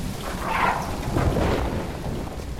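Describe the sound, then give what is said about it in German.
A thunderstorm with steady rain: a broad, continuous hiss of rainfall with a low rumble of thunder rolling underneath, fairly loud throughout with no voices. “Ich meinte das Regenwasser.”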